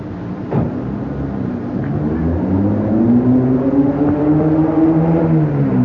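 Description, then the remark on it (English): A small Volkswagen car's engine labors as it climbs a hill, its steady droning hum rising gradually in pitch as it strains and accelerates, loud and continuous throughout with no voices. “That's a truck going by. Actually, a Volkswagen.”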